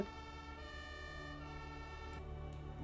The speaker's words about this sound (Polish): Za oknami e, słyszycie um, syreny strażackie, ale to całą masę. A cóż to? O cholera, jasna.